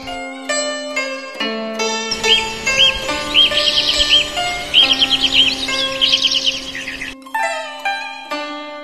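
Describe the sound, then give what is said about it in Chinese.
Magpie chirping in bright, rapid bursts of high trills, repeated several times over a soft, sustained musical background of steady melodic tones. “我看见喜鹊阿姨站在窝里，一会儿教喜鹊弟弟唱歌”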